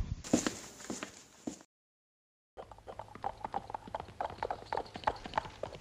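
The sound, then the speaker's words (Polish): Rapid clip-clop of horse hooves on hard ground, a brief pause, then a steady rhythmic clatter of several horses as riders mount up and ride away. It is moderately loud, with no talking. “Chamy, na koń.”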